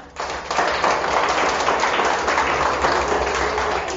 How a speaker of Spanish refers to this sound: Muy bien, dale un aplauso.